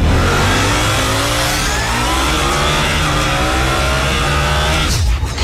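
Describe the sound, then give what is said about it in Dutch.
Several motorcycles of the same model rev loudly on a race circuit, their engines roaring continuously with pitch sweeping upward as they accelerate, dense, until the sound cuts off near the end. “Dit zijn meerdere exemplaren op het eh, circuit.”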